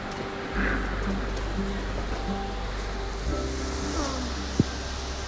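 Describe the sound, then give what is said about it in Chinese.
Rain falls outside as a steady, even hiss with no pauses, over a low, continuous droning hum. A single sharp tap sounds near the end, and no one speaks. “啊，对，下雨就不行了。”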